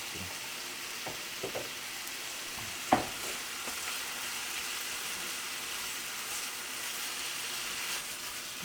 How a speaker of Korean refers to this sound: 곧 밥이 들어가도 될 것 같아요. 김치볶음밥은 좀 눌러붙으면 좋아서 저는 좀 오래 볶는 게 맛있는 것 같아요. 음, 오래 좀 볶아보죠.